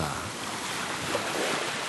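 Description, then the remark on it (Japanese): A steady wash of ocean surf on a beach, a continuous hissing roar with gentle swells and no distinct breaks, heard alone without any voices. “「砂に書いた文字が波に溶けたよ」なんて書いてあった”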